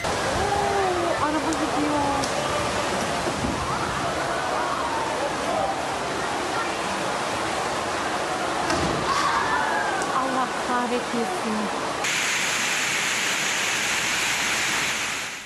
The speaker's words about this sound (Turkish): Sağanak yağış sel olup aktı, cadde ve sokaklarda debisi yüksek nehirler oluştu. Motosiklet ve arabalar teneke kutular gibi sürüklendi sel sularında.